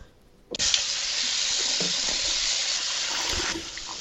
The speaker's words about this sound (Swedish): Ta tillfället i akt och hälla upp en liten, en liten, en liten öl här. Mm, Alkoholfri.